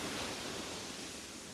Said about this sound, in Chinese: 这才是大海的声音。